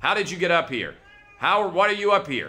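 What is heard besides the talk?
cat meowing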